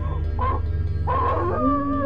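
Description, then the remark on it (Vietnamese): A dog howls from somewhere far off in a village past midnight on a quiet night, its long wavering cries rising and trailing away twice over a steady low background hum. “Quá nửa đêm ông Lương giật mình Bởi ông vừa chợt nghe thấy tiếng chó chu vọng về Từ một nơi nào đó ở trong làng Bà đêm yên tĩnh Do vậy tiếng chó chu rõ một một”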